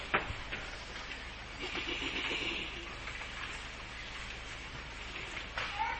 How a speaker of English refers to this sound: I hear it's raining.